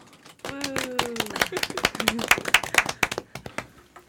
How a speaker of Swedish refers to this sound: En liten applåd kanske.